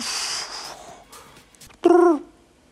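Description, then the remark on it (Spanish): A single loud, hollow owl hoot, used as a sound element in a deep house track, rings out near the end, preceded by a soft breathy whoosh and faint rustling textures, then fades into quiet. “un búho en tu canción de Deep House.”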